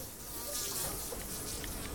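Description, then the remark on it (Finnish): A single housefly buzzes steadily at the window of the teachers' room of Mukkula comprehensive school in Lahti, Finland, on a fine summer day, its droning hum wavering slightly in pitch as it bumps about against glass, with no voices present. “Yksinäinen kärpänen pörisee Mukkulan peruskoulun opettajan huoneen ikkunassa.”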